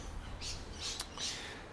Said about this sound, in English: And a trigger warning there's a lot of parrots in the background.